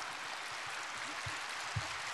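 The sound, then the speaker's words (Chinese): An audience applauding after the end of a speech, a dense, steady wash of many hands clapping that holds evenly throughout, fairly soft in level, with a few dull low thumps underneath and no voices. “哎呀，雷鸣般的掌声，让我想起了去年在新加坡八万人的法会，也差不多这么响。”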